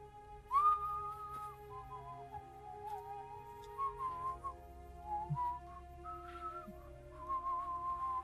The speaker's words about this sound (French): à ce moment-là, vous entendez un sifflement.